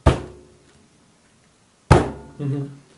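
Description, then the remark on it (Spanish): Two loud, heavy knocking blows land about two seconds apart, each with a brief ringing decay, and a short voiced sound follows the second one. “y de repente empecé a escuchar como cómo sonaban golpes, así.”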